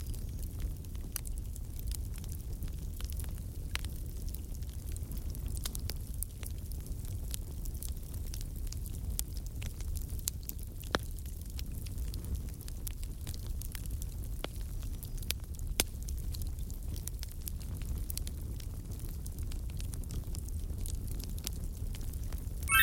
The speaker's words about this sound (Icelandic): Þetta er snarkið í eldi.